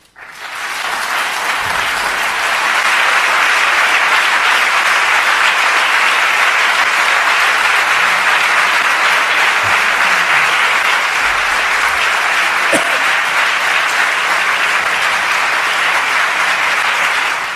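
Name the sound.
audience applause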